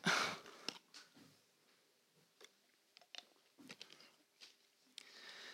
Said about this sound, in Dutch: Ehm, sorry, ik ga eens een slokje water nemen.